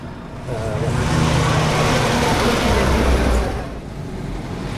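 Steady rumble of slow, congested traffic in a jam on the Nationale 7 main road at Lapalisse, with several engines idling and droning, a continuous loud wash of motor noise that eases briefly near the end.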